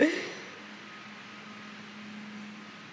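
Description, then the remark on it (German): Muffled drilling as someone breaks through the wall in the neighbouring office, a steady low droning hum under a faint hiss that holds evenly throughout, fairly quiet, after a brief louder burst at the start. “Das Bohren wird immer lauter, wir ziehen das hier knaller durch.”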